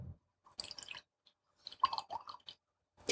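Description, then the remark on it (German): Liquid splashes and trickles into a glass in short, wet bursts with brief pauses between them, fairly quiet, with no talking. “Hast du ein Gepütscher gehört, bisschen?”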